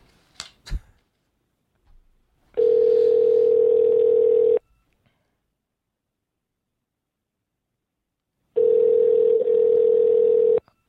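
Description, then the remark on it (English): A telephone call to Rashad Evans ringing out: two long, steady ringback tones of about two seconds each, separated by a pause of silence, with a few faint clicks at the start. No one speaks. “we're calling him right now”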